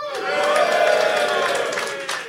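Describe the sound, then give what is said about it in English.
A live show audience at the Three Guineas pub in Reading cheers and whoops loudly over a steady wash of applause, with shrill shouts rising above the crowd noise throughout the burst. “Welcome to this live podcast. Fuller's Guinness Flats and Shanks. Make some noise.”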